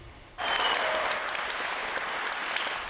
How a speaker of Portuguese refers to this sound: E em Londres, o primeiro paciente a se recuperar da Covid-19 em um hospital de campanha foi aplaudido pela equipe médica.